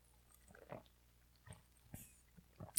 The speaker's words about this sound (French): Je vais prendre une gorgée, j'étais en train d'avoir une la voix rauque, là.